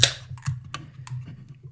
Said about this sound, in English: So why don't you say we crack this 12 ounce can?